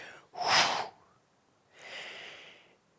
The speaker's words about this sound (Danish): Fordi så er det som om, jeg trækker vejret ind, fylder mig med al Jesu herlighed og hellighed og kraft. Og så ånder jeg ud alt mit eget. Bekymring, syndighed, urenhed.